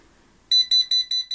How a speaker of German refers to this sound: Sobald die Sensoren über mehrere Sekunden keine Bewegung mehr registrieren, schlagen sie Alarm.